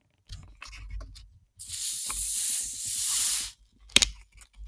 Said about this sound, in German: Oh, das war jetzt ein leiser Pups hier. Dürftig. Sehr dürftig